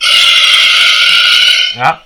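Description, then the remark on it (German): A loud, shrill dinosaur scream effect from an animated dinosaur stomping across a design holds a sustained screech for nearly two seconds, then ends with a short harsh squawk. No one speaks over it. “Da schreit er auch.”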